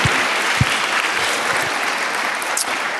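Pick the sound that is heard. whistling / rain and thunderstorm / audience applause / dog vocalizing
audience applause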